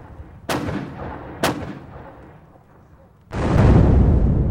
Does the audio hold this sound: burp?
no